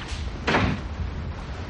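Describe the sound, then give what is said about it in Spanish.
A bathroom door shuts once with a firm, fairly loud thud partway through, set against a low, steady room hum. No one speaks. “Entra en el baño. Ella lo sigue hasta la puerta cerrada.”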